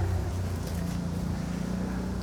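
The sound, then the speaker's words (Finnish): An ATV (quad bike) engine drones steadily as it drives past in the countryside, a low rumbling hum with a slight buzz that holds fairly even throughout, with no voices. “Siinä menee mönkiä. Aika tämmönen hot rod tai tämmönen niinku Joo, kova.”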